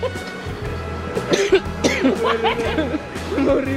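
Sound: coughing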